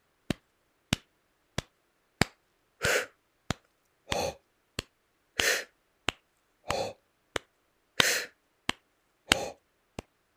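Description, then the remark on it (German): Sharp, steady hand claps keep an even beat. After one bar of clapping, a breathing exercise begins: a breathy exhale on count one and an inhale on count three fall between the claps in a regular pattern. No one speaks. “Ich klatsche erstmal einen Takt so und dann beim zweiten geht's los.”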